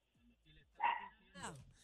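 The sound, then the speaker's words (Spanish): A female dog barks twice in quick succession, short yelping barks that stand out loud, with a person's voice faintly present in the background. “Ahí está la, la perra mía haciendo, este, diciendo presente.”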